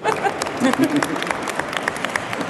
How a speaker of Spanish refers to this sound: Un aplauso. un aplauso.